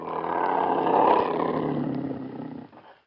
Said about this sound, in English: The large cat snarled louder, stepping closer to the couple and looking like he was about to attack.